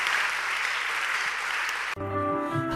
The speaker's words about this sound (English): Yes, you may go back. Clap for them as they go back.